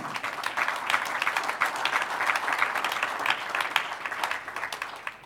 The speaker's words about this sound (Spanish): ¿Cuántos dicen gloria a Dios? Aleluya, un aplauso al Señor.